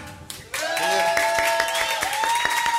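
A crowd bursts into loud, dense applause after a brief quieter moment, clapping steadily throughout, with a sustained tonal sound, like cheering or music, ringing above the claps.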